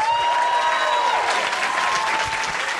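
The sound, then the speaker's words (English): An audience claps steadily for Mary Beard, a dense, sustained wash of applause at an even loudness throughout, with a faint high tone lingering in the first second. “Ladies and gentlemen, please give it up for the fantastic Mary Beard.”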